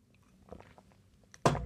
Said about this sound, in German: außer dass ich jetzt mal was trinken muss. Ne? Jede Folge muss getrunken werden.